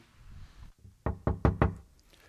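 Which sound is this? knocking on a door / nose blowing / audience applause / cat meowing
knocking on a door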